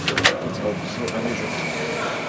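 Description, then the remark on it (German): A cleanroom air shower in Ottobrunn near Munich, used to blow people clean before they enter a space-instrument assembly hall, blows a steady rush of air, preceded by a few brief knocks and rattles at the start, with the whooshing continuing evenly throughout. “Hier machen wir eine Luftdusche, damit wir schön sauber sind.”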